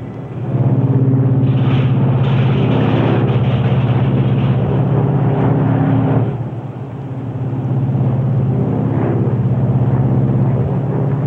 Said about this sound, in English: this super constellation is the most dependable airliner in the world today. Okay, …, bring in one. Unfeathering one.